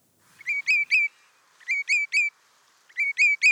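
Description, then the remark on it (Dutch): Common redshank calling in three clear bursts of ringing, whistled notes, each a quick descending triplet, loud with short pauses between, no voices. “Dat tjululu, dat klinkt als zijn naam.”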